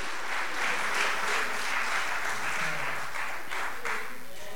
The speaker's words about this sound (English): Give the Lord a hand clap of praise. Hallelujah.